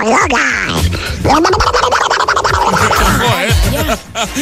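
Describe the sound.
A voice does a raspy, garbled Donald Duck impression, squawking continuously and loudly for several seconds in a buzzy, nasal quack-like babble.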